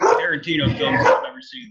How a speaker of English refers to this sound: Sorry, that's my dog going ape shit.